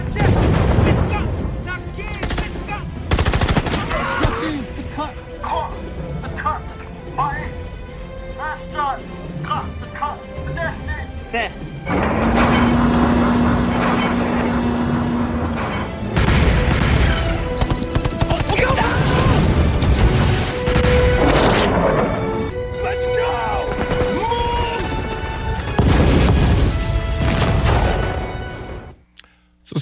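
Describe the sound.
Heavy artillery fire and explosions from a film boom repeatedly, loud, with crackling bursts of gunfire, a rising whine, and men's voices calling in artillery coordinates over the battle noise.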